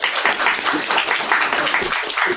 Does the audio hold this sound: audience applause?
yes